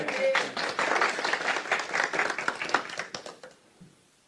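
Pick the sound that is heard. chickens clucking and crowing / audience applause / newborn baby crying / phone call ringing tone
audience applause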